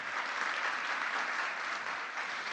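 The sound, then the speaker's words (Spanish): Steady, dense audience applause from many hands, a continuous bright crackle of clapping with even loudness throughout and no voices standing out. “Así que un aplauso grandísimo, exponencial de ustedes para ustedes.”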